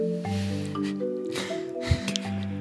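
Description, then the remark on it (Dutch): A kettle heating water, a steady low hum and hissing rumble with occasional soft pops and gurgles breaking through, no voices. “En je hoort de ketel”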